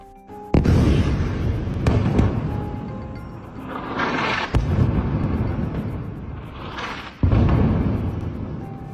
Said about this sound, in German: Kurz nach 21 Uhr lautet ein Post in einer Facebook-Gruppe, alle Wohntürme im Al-Sahara-Quartier werden momentan bombardiert.